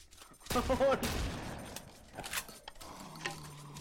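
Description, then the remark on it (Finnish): A video game shotgun fires in automatic bursts, a dense volley of blasts early on followed by a couple of sharper single shots, loud, with faint game sounds and murmuring underneath. “Tämä on pikkusen epäloogista, että toi haulikolla pystyy ampumaan sarjatuulta.”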